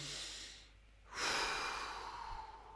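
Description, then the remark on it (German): A person breathes slowly and deliberately: a soft airy breath fades out, then a long, loud, rushing breath swells and slowly tapers over a couple of seconds. No one speaks. “ja, und versuchen langsam zu atmen.”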